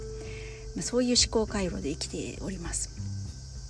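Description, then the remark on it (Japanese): A steady, high-pitched cicada drone hums continuously in the background on a summer day while a woman talks over it. “これセミの音入ってるのかしら すごいセミの声がね今めっちゃしてます、えー、夏ですね”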